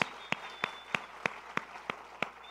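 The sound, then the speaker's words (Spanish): A church audience claps in unison as an applause for the Lord Jesus, eight sharp, evenly spaced claps at a steady rhythm over a low background hum, with no one speaking. “Qué bueno, démosle un aplauso al Señor Jesús.”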